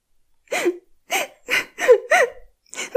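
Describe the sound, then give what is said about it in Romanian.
A girl, Gretel from the Hansel and Gretel tale, cries bitter tears, sobbing in a series of six short, catching hiccup-like gasps, each a quick whimpering burst, repeating in an uneven rhythm with no talking. “La un moment dat, Gretel începu să plângă cu lacrimi amare și îi spuse lui Hansel printre sughițuri”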